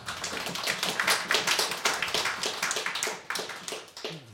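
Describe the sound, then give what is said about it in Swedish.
A crowd at a poetry reading applauds a poet steadily, many hands clapping in a dense, crackling patter that holds fairly even volume for several seconds with no voices over it. “En applåd är han också värd.”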